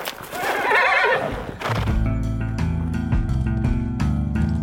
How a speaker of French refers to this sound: un hennissement lointain lui répond. Un instant plus tard, Ablut, son fidèle poney, arrive au galop.